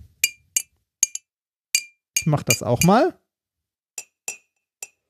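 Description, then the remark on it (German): About a dozen light taps against the side of a cup, struck at a spot 45 degrees from the handle, ring out as bright, clinking pings with a short high tone, spaced irregularly; a person briefly speaks partway through. “Und klopfen an der Stelle dagegen.”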